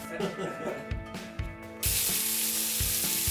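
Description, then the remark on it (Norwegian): Twenty sausages frying in plenty of oil in a pan: after a moment of low murmuring background noise, a loud, steady sizzle bursts in and continues, crackling and hissing without pause. “Nå hører vi eh, pølsene steke her.”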